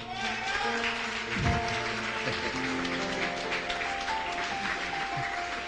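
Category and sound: crowd, audience applauding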